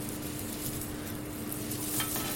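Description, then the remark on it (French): Steady sizzling of leeks grilling in rapeseed oil on a hot plancha griddle to brown on all sides, a continuous crackling hiss with small pops and a faint low hum underneath, no voices. “là on entend bien, on entend bien le poireau qui grille.”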